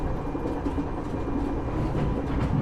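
A train rumbles steadily along the rails, its low continuous roar loud, with faint rhythmic clacking of wheels over track joints and no voices. It is heard on board a train travelling from Padalarang to Kiara Condong at nearly 3 a.m.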